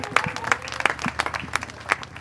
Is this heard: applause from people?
yes